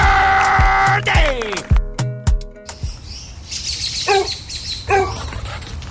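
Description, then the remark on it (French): After a brief burst of bright musical tones, a dog that has got out of the yard again barks twice in quick succession, moderately loud, over an outdoor background with faint bird chirps, in a radio advert for Clôture Terrien fences. “Maman! Le chien est encore sorti de la cour!”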